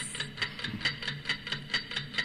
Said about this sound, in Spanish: Tic tac, tic tac. Eh... Tic tac.